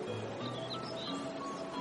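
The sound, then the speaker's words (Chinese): A fully wound, handmade music box plays a steady, tinkling melody of sustained bell-like tones, with high, warbling birdlike chirps of the little mechanical nightingale inside, turning round and round, fluttering over it throughout. “这是妈妈给我做的音乐盒，里面的小夜莺会唱歌。”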